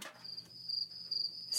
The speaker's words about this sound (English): Say, what's that chirping noise? Chirp, chirp, chirp, chirp. Why, it's the sound of a cricket. Chirp, chirp, chirp.